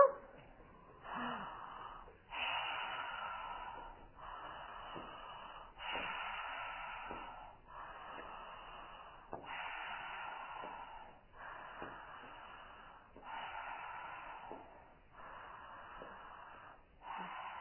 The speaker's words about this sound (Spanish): Esta respiración es más larga y da tiempo a llevar el aire a la barriga, si algunos lo conocen mejor. Exacto, enviar el aire más a la barriga, ¿vale?